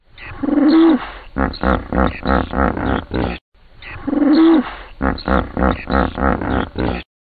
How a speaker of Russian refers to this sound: Я не знаю, как вы для себя решили, кто это и что это, но разгадка вот какая. На самом деле это звуки бегемота.